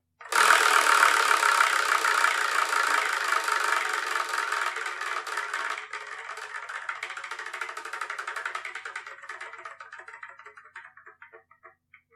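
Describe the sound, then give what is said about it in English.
A spinning prize wheel of manga titles, spun to pick the next manga to review, whirs with a dense rattle of rapid clicks that gradually spread out, slow down and fade over about twelve seconds, landing on number six, River's Edge, with no one talking. “So let's spin through it and I'm going to review the next episode, shall I?”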